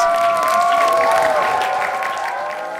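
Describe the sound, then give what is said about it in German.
Loud, dense applause at the end of a children's performance of Hans Christian Andersen's The Emperor's New Clothes at the theatre in Rudolstadt, a continuous roar of many hands clapping, with a few sustained tones ringing above it and the volume easing slightly toward the end. “Wenn nach gut einer Stunde Spielzeit der Kaiser in Satin-Boxershorts auf der Bühne steht, die Minister entlarvt sind und Kaiser Eduard sein Interesse an Marie zeigt, steigt, dann ist es das Ende der Geschichte und es gibt rasenden Applaus.”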